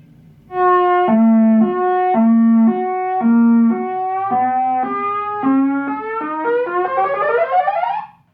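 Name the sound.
ambulance passing by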